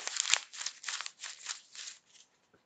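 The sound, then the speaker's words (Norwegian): A 50-euro paper banknote being crumpled up, a series of crisp crackling bursts in uneven rhythm over about two seconds, fading out with a final faint rustle. “Og hvis jeg krøller den euroseddelen”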